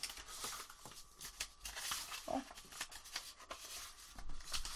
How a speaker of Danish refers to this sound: Nu øh, råder jeg lige rundt i mine papirer her.